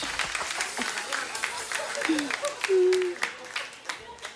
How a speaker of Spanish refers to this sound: Se lo merece, se lo merece un aplauso, se merece un aplauso.